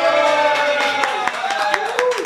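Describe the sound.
Scattered, uneven claps from a small studio audience, sharp and fairly loud, mixed with sustained cheering voices and a wavering tone.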